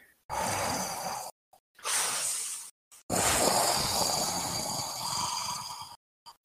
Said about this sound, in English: Yep keep turning that crank and hearing it just on down. And the breathing is getting louder.